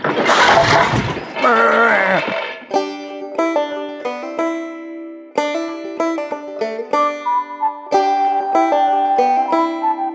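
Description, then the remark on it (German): A loud wooden plank breaking under a heavy sheep in a shopping cart opens with a sharp, splintering crack lasting a couple of seconds, then gives way to a series of sustained tonal, melodic notes. “Die Planke ist zerbrochen und Shirley aus dem Einkaufswagen gekullert, mitten auf den Rasen.”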